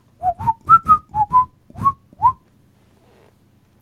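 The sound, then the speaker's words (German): A short whistled segment intro jingle of about eight bright, sliding notes in a quick rhythmic phrase, clear, with no talking, then fading into silence. “das hört sich an die kleine Zweitliga-Ecke”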